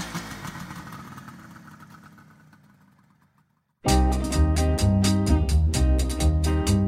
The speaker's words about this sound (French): La Kawasaki 500, c'est une grosse moto qui peut atteindre les 190 km/h, même les 200.